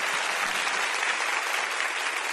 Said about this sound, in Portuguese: Isso Pode aplaudir.